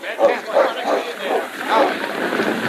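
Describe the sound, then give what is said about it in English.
Sergeant Preston's dog, ordered to stay outside a burning building, barks in a quick, steady series of about six short yelps, moderately loud, with a faint murmur of background noise underneath. “Quiet, old boy. Sergeant gave you orders to stay here.”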